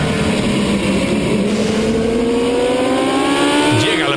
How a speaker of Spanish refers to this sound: Miren. Todo está preparado en una pista de carreras para iniciar la carrera. Los motores se están calentando y listos para acelerar.